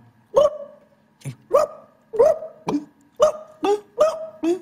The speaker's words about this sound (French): Faudra un son de... de chien kabyle, tu vois un Tiens, son... un chien, un, ch... un chien qui a... a, pas mangé depuis longtemps, un chien qui a soif.